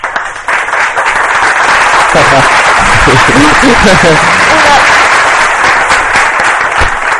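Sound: applause sound effect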